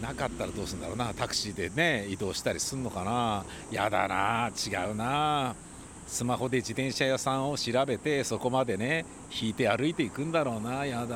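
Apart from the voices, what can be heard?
cicadas singing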